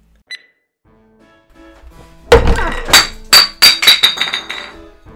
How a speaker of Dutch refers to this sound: Ja, daar ging mijn bier. Wat zit je te lachen? Mijn bier is op de grond gevallen.